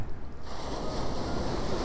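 Ocean waves wash steadily onto the shore in a continuous broad hiss, with a bit of wind mixed in and no voices.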